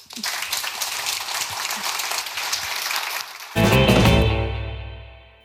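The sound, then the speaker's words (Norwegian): An audience claps steadily for the people on stage in a dense, crackling wash of applause for a few seconds, then a loud burst of music cuts in over it and gradually fades out. “Gi dem en stor applaus.”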